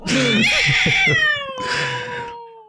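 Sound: cat meowing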